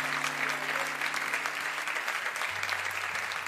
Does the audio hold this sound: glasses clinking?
no